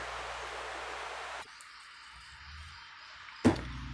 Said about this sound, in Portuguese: Está chovendo.